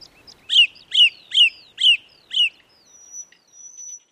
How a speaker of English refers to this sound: So we're hearing anecdotes that the birdsong seems to be getting louder in this period when we're in lockdown and so many people are spending more time in their gardens. I don't think it's getting louder,